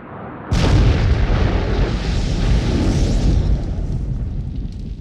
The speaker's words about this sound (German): Die afghanischen Streitkräfte vermuten dort eine größere Zelle von Taliban-Kämpfern. Und so werfen sie am 15. Juli 2021 mehrere Bomben über den Marktplatz ab.